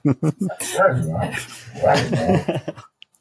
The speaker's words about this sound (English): he's talkative. yeah, he's a he's a hound. He's a he's a Plott hound.